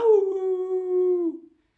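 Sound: dog howling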